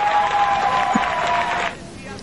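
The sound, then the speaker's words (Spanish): An audience bursts into steady, dense applause for alternative music that holds at an even level for under two seconds, then cuts off abruptly, with a faint sustained tone running beneath the clapping. “Y yo, yo hasta pido un aplauso para la música alternativa, ¿sí o no?”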